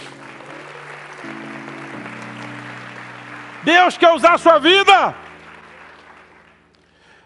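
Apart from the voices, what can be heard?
audience applauding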